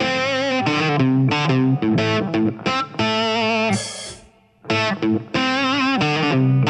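Blues rock with a heavily distorted electric guitar playing choppy riffs and sustained bent notes, loud and up front, briefly dropping out before the riff kicks back in.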